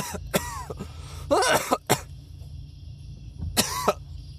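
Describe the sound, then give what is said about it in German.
A harsh coughing fit: several rough coughs in quick bursts, then a pause and two more strained hacks with a retching, gagging edge. No one speaks. “Wenn euch beim Husten schon so ein bisschen so der Wirkreflex im Hals steckt und so ein bisschen Kotze mit hochkommt.”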